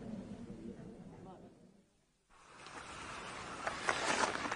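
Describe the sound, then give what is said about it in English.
A boat moving across water toward the cove: a low motor drone fades briefly to near silence, then rushing, splashing water noise builds and grows louder. “But certainly, you can accompany us and Mr. Redfern there in the boat.”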